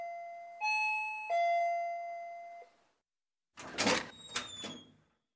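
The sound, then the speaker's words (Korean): A doorbell chimes in a clear three-note ding-dong, loud, with the last tone ringing out before silence, then a short burst of clattering like a door being opened. “초인종이 울리는 소리를 들으면 문을 연다.”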